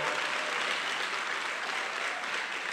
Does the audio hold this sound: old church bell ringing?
no